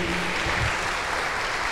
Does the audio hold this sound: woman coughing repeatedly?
no